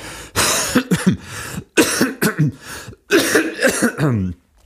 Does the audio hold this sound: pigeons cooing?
no